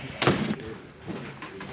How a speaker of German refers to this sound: So, gehen Sie mal einfach rein in den Haftraum. So, jetzt machen wir die Tür zu.